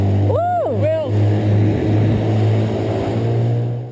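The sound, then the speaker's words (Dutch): A small motorboat passing near whales, its engine droning steadily with a low, constant hum throughout, while a couple of brief, arching tonal calls rise and fall near the start above it. “Wat een wat een geluid voor die walvissen.”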